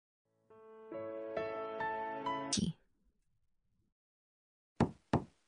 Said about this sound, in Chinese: 外面传来敲门声